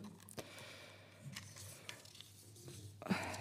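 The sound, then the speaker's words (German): Quiet, intermittent rustling and shuffling of paper as someone searches for the documents they need, a few soft crinkles and taps spread across a few seconds, with no one talking. “Ja, genau, schweigen, bis ich hier die Papiere gefunden habe, die ich brauche.”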